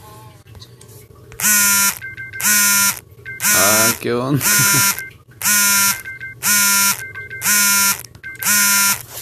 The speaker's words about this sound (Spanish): Es la alarma, es la alarma. Ok, ya. Alarma apagada, música apagada también.